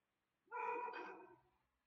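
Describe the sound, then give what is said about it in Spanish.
A dog that barks when a door is opened or closed lets out one drawn-out, tonal bark lasting about a second, standing alone against a quiet background with no talking. “un perro que ladra cuando abren la puerta, cuando cierran la puerta.”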